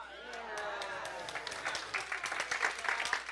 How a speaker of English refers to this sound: And you can all clap, but you're out there shopping every day, getting ready, time's running out.